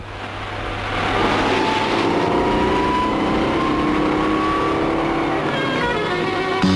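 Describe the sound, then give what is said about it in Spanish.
A Citroën GS car engine drones steadily as the car drives along in an advert, its pitch rising and falling slightly with acceleration, fairly loud, with no voices over it. “Citroën GS, un coche que empieza donde otros acaban.”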